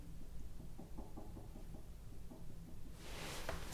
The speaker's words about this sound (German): Bist du das? Ja, was ist das? Weiß nicht. Du klopfst doch. Nee, ich schwöre, ich klopfe echt nicht. Echt nicht?